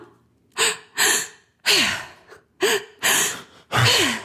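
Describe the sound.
Someone does a breathing technique, breathing deeply and forcefully into the belly and chest in a steady rhythm with the mouth wide open: about six loud breaths alternating between sharp inhales and voiced, sighing exhales, with no talking.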